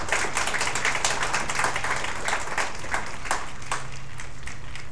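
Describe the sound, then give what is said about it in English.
An audience applauds the Ambassador of Lithuania steadily throughout, a dense wash of many hands clapping at a fairly even loudness with no voices rising above it. “Ambassador, Your Excellency, just a round of applause.”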